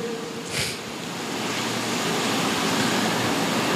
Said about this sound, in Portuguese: A chuva dispersou. Oi? A chuva despertou. A chuva despertou.